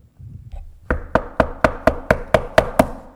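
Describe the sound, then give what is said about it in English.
A rapid series of eight heavy, forceful knocks on a wooden house door, evenly spaced and loud, as a man pounds on it, following a brief low rumble at the start. “as Mr. Moody was getting into bed, there was this pounding on the door”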